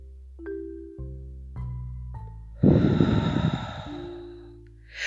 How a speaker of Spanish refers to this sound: Exhalamos ya lo sabe, respira, aguanta esa respiración unos segundos, luego exhala suavemente.